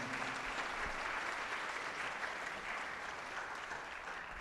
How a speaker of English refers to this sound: Ladies and gentlemen, we have a tremendous panel of experts, and let's give them a round of applause to begin with.